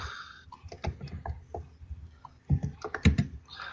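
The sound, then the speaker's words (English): Rapid, clicky keystrokes on a computer keyboard with a short key throw, typed in uneven bursts with a louder flurry near the end, crisp with no one talking. “Oh, by the way, this keyboard yeah. is much clickier.”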